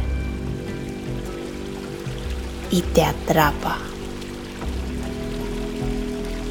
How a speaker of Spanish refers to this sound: El sonido del agua es cada vez más fuerte